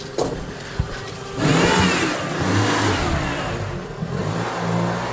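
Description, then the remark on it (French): A car driven by a woman pulls in at a former convent, its engine rising into a loud rev and then settling into a steady mid-pitched rumble with shifting tones, no voices present. “il y a une voiture qui rentre.”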